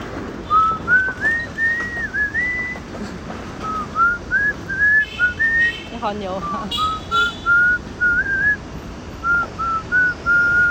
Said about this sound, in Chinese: 我还会吹，我还会吹歌哦。